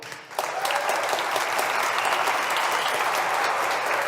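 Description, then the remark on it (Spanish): An audience breaks into sustained applause for the staff of G36 Polanco: a dense, steady wash of many hands clapping that starts abruptly after a brief pause and holds at a fairly loud, even level throughout. “Pero antes que nada, quiero por favor que, feliciten un aplauso a todo el staff de G36 Polanco, por favor.”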